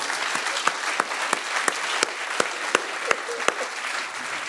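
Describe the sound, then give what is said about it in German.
A steady round of audience applause, dense clapping from many hands with a few sharper claps standing out, sustained at a moderate level throughout without any voices. “Ich finde auch, dass es ein Applaus wert ist.”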